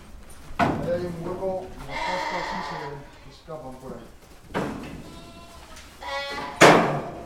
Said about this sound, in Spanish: Nos hemos venido a la Casa de Campo, que es la gran zona verde de Madrid, y a mucha gente le sorprendería encontrarse con esta estampa, con un gran rebaño de ovejas, de corderos en una majada